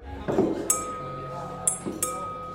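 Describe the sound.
Three sharp, ringing taps on a glass in an uneven rhythm, tapping the letter K in Morse code, bright, with a faint murmur of voices in the background.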